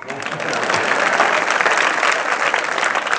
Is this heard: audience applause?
yes